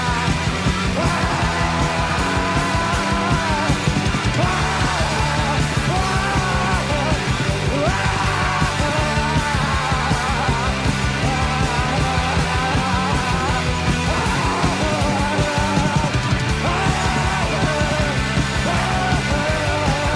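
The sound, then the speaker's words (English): A 1984 punk rock recording plays loud and dense throughout, with driving drums and distorted guitars and a raw, strained voice yelling and screaming over the band at full volume as the singer freaks out at the end. “the show with some raw screaming”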